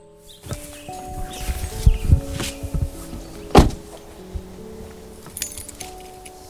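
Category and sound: household object, keys jangling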